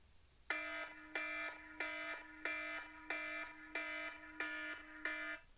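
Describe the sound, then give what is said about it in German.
A harsh electronic timer buzzer, sounding when a 30-minute time limit runs out, blares in a steady repeating pattern, about nine rapid pulses each ending in a brief drop, loud with no one talking. “Und ähm, wenn die Zeit vorbei ist, kommt dieses Geräusch hier.”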